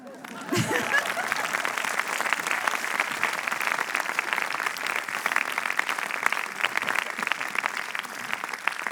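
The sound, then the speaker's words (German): An audience applauds steadily for several seconds, a dense, even wash of many hands clapping at once that holds its level throughout without pausing. “Bitte klatschen.”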